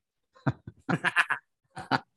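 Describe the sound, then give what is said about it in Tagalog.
A person imitates a goat, letting out a run of short, quavering bleats, then two more after a brief pause. No actual speech is heard. “Sabi mo aso, no, pero kambing pala.”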